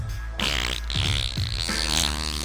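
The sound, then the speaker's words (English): A person blows a long, loud raspberry imitating a man's fart in his sleep, a rough, sputtering buzz that carries on for a couple of seconds with no talking over it. “You shouldn't fart like that in your sleep. I mean, it was loud.”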